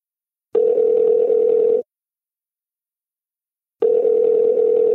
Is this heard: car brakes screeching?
no